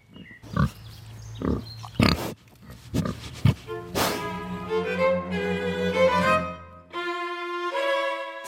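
Woolly pigs on the Meierhof farm grunt, a series of short, rough grunts in the first few seconds giving way to longer, higher squealing calls and snorts, with no one speaking.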